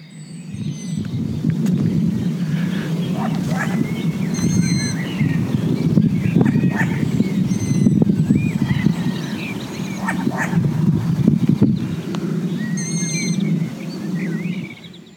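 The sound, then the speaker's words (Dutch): Several short, bark-like calls of a long-eared owl parent keeping contact with its young ring out at irregular intervals over a steady low rumble of outdoor background noise, with thin high bird chirps scattered throughout. “En af en toe hoor je dat een van de ouders contact houden met een jongen door een soort geblaf te produceren.”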